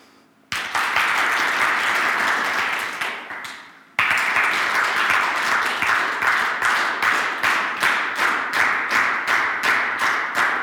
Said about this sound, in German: Wenn ich gleich die linke Hand hebe, dann klatscht ihr so lange, bis ihr einen gemeinsamen Rhythmus findet.